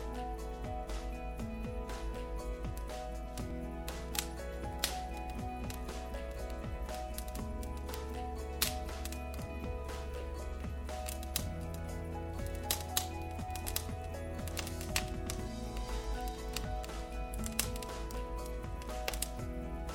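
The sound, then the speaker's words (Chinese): Campfire crackling on an early autumn night fills the stretch: irregular sharp pops and soft snaps scattered throughout over a steady low hum, with no voices. “初秋的夜晚最适合篝火。”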